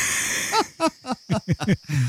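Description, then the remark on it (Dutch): A lion growls in a run of about six short, rhythmic grunts, each dropping in pitch, after a brief breathy hiss; no one talks over it. “Ik word toch echt een leeuw op de achtergrond.”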